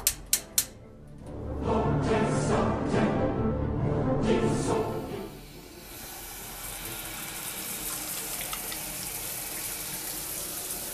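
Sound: running shower water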